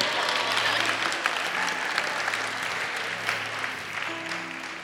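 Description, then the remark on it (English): A crowd applauds a man for passing a test by ministering to people, steadily for about five seconds, dense overlapping clapping at an even loudness, with faint low tones and a few scattered louder claps rising out of the wash. “And he passed the test nicely. Clap for him.”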